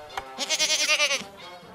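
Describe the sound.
A goat lets out one drawn-out, quavering bleat lasting just under a second, fairly loud, preceded by a brief soft click, with no talking.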